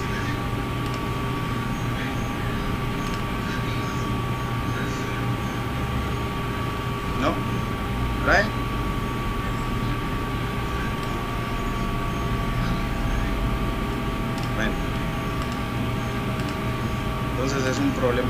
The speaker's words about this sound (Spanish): Apaguen la lavadora, dice la gente.